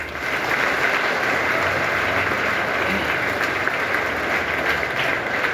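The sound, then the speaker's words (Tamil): Steady applause from an audience giving themselves a round of applause fills the whole stretch, a dense, even wash of many hands clapping at a constant loudness with no voices standing out. “சரியான பதிலை சொல்லிட்டீங்க உங்களுக்கு வாழ்த்துக்கள் நீங்களே உங்களுக்கு ஒரு கரகோஷம் கொடுத்துக்கலாம்”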